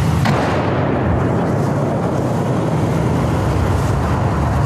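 A loud, sustained low rumbling roar from an explosion on the road behind, still reverberating, with a brief sharp crack right at the start and no voices over it.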